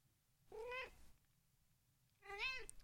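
A cat meows twice, two drawn-out, tonal calls separated by a pause of over a second, clear with no talking.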